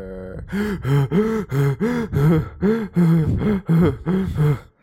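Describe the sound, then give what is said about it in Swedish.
A voice mockingly imitates another person's heavy breathing, producing about ten rhythmic, exaggerated gasping pants in quick succession, loud, with no words spoken. “Det känns som du gjorde narr av mitt eh, andning här nu.”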